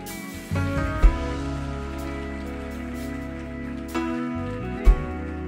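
A church audience applauds in praise of the Lord in a dense, steady wash of clapping lasting several seconds, with sustained keyboard chords underneath and a few brief low thumps along the way.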